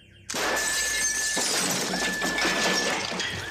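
A row of doors is kicked in one after another with flying kicks, each caving in with a sudden, loud smash, followed by a sustained crash of splintering, shattering debris that rings on for several seconds, with no voices.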